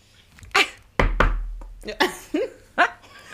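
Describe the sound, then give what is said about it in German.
Four sharp knocks on wood, spaced unevenly over a few seconds, with brief murmured vocal sounds between them. “Klopf mal aufs Holz.”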